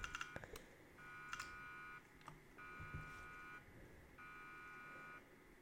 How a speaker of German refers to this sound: Alarm ist angegangen.